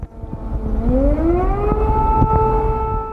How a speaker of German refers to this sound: Die Sirenen in Kiew haben schon früher, tief in der Nacht zum Freitag geheult.